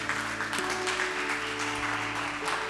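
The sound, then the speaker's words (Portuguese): An audience applauds steadily, a dense, continuous patter of many hands clapping at an even loudness throughout, with a low sustained hum underneath. “Dá um aplauso aí, vamos ficar de pé.”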